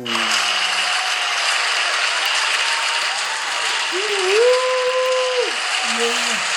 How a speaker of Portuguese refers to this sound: Muito obrigado, muito obrigado. Muito obrigado. Mais palmas, por favor. Que público adorável.